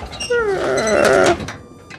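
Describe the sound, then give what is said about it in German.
A voice imitates the creaking wooden bar across a gate scraping open as the door is opened: one drawn-out, wavering, nasal creak lasting about a second, fairly loud, then fading out. “Dann hörst du ein Krickrack von diesem Balken offensichtlich. Ein scherendes Geräusch”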